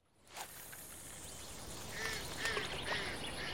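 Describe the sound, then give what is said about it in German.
Ducks quack a few times in short, evenly spaced calls against a steady outdoor hiss, fairly quiet, with no one speaking. “Das hätte ich mir mal alles vorher merken sollen, sogar diese Enten.”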